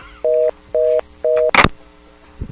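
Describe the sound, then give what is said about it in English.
A telephone rings with three short, evenly spaced electronic tone bursts, loud, followed by a sharp clatter and then quiet. No one speaks. “Every time the phone rings, the cat freaks out and runs out of the room.”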